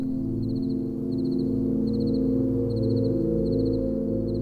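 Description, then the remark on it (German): Crickets chirp softly in short, evenly spaced trills that repeat steadily, layered over a low, constant hum of night ambience with no voices. “Du hörst das leise Zirpen der Grillen, das ferne Rauschen des Windes in den Bäumen und gelegentlich eine Eule.”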